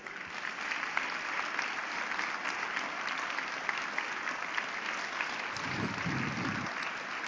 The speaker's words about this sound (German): Einen heftigen Applaus, bitteschön.